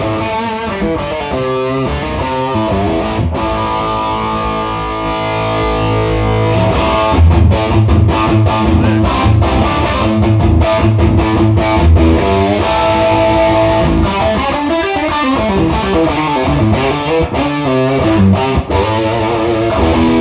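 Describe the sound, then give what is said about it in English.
Crunchy electric guitar power chords ring out through a Princeton Reverb amp with the drive off, loud, with gritty sizzle, sustained chords and quick rhythmic stabs and mutes over about twenty seconds, no voices. “Yeah, that's power chords and stuff. it's got the sizzle. Dude, that's with the drive off.”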